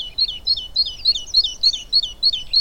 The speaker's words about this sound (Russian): Еще один очень открыточный пейзаж, посреди сугроба птичья кормушка, и вокруг нее довольные синички скачут.